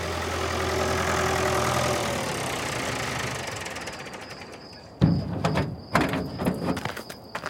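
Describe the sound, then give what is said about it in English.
A car engine hums steadily, then fades into a thin whine broken by sharp mechanical clicks and ratcheting clatter. No one speaks. “I hear something. I think it's a car.”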